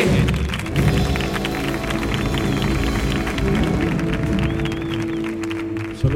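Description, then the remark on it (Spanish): A studio audience applauds steadily on the show 'El show del comandante Lara' (fifth season), dense overlapping claps filling about six seconds at an even, fairly loud level, with a low sustained tone humming underneath. “Fuerte el aplauso para Chema Tagua, por favor”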